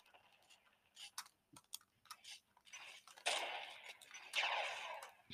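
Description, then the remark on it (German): Several sharp, crackling video game rifle shots fire at irregular intervals, with the two loudest bursts near the end trailing off in a gritty rumble. Fairly quiet overall, with no talking. “Jetzt kommt dieser Noske mit seiner riesen Bulgar, Junge, und knallt uns eine weg, Junge, ey.”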